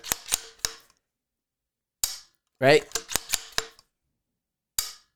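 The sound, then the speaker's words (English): Sharp metallic clicks from a rifle's action and trigger as it is dry-fired, three in quick succession, then a pause, a single snap, a brief spoken word, a rapid cluster of clicks, and one last click. “I, I got a rifle right in my hand, so I can sit right here, and you guys can hear some of this, and I could dry fire,”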